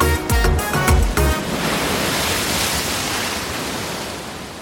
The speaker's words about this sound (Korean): 이 파도 태풍 아니야? 태풍? 태풍은 파도 같은데 이렇게 세게 않 치는데